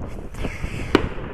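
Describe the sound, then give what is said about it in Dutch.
Fireworks pop and crackle outdoors in November, with one sharper bang standing out among a few fainter bursts over a steady background hiss. “Maar een van mijn hobby's is vuurwerk.”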